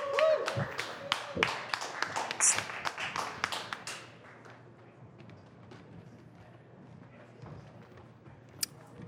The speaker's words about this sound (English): Please give them a warm round of applause.